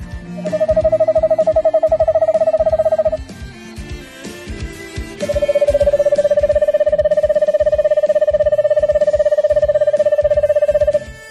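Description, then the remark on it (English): An eastern screech owl gives two long, steady trills on a single pitch, a short one and then a longer one after a pause, both clear, with no talking. “A trilling song to keep in touch with mates or family, like this.”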